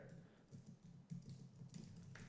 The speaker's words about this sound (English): and you're gonna hear me typing because I need to put the right uh, mantra in the notes here